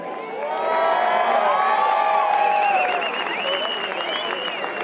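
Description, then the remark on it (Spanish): A packed crowd of boxing fans in the Zócalo in Mexico, watching on a giant screen, roars and cheers continuously, a dense wash of many overlapping voices with rising shouts and whoops, loud and sustained throughout. “Está la jefa de gobierno desde sus oficinas comunicándose ante un zócalo repleto de aficionados del boxeo aquí en México a través de una pantalla gigante instalada ahí.”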